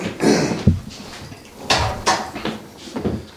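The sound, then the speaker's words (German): A door is pushed shut, with a handful of short wooden clunks and thumps spread over a few seconds against a quiet background. “Schließen, will die Türe schließen.”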